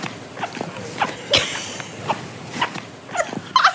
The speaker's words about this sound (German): als der aus dem Zug gegangen ist, habt ihr das gehört? Wo die Schuhe die quietschen.